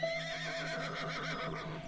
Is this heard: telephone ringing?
no